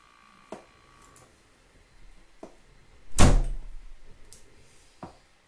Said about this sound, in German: Ich mache eben die Tür zu.